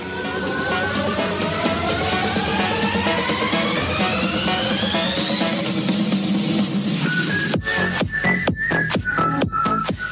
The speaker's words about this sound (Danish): Jeg savner dig så meget, fordi jeg har en sang, jeg synes, du skal høre. Og det er den her sang i baggrunden. Den har sådan et lækkert drop, som du burde høre.